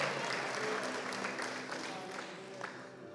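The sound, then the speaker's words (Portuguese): An audience applauds Jesus in a steady, dense wash of clapping that fades slightly over three seconds, with faint overlapping voices murmuring beneath the applause. “aplauda Jesus.”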